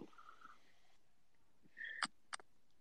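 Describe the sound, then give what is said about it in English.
A crow squawks twice in the background, a harsh raspy caw followed by a shorter one, after some faint thin calls, with no talking. “It means it was that crow in the background that you were hearing squawking.”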